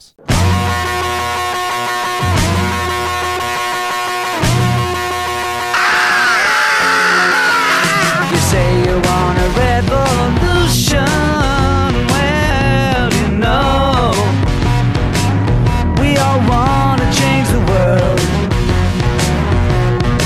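A loud recorded rock song opens with a few heavy, rhythmic distorted guitar stabs, then a raw yelled vocal bursts in and the full band drives on with gritty guitars, bass and drums.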